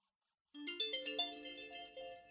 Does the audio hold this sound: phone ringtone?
yes